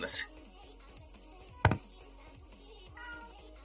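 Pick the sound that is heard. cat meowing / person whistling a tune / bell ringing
cat meowing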